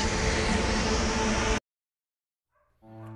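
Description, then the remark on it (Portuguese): A bus pulls up at a stop, its engine rumble and hissing brakes loud and dense for about a second and a half before cutting off abruptly into silence. “Eita, meu ônibus agora, pessoal.”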